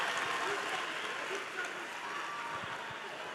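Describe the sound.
A church audience claps for a Chinese-language speaker, a dense crackling patter of many hands holding an even loudness for a few seconds, with faint voices mixed in underneath.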